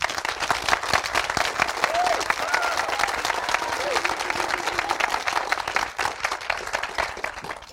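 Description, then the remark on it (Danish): Sustained applause from a live audience at Empire Bio for three guests, dense and steady for several seconds, with many hands clapping at once and a faint whistle or cheer rising briefly partway through. “Giv dem lige en ekstra hånd.”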